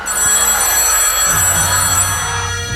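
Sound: telephone ringing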